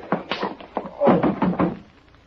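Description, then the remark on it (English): A quick flurry of heavy punches lands in a scuffle, ending in a punch to the jaw that knocks out a boxing champ, several dull, thudding blows in a rough rhythm before the noise fades out. No one speaks. “Right in the whiskers. You KO'd the champ.”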